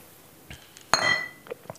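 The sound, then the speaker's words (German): A single bright clink of glasses touching in a toast, ringing briefly and fading, with a few faint soft knocks around it in otherwise quiet surroundings. “Zum Wohl.”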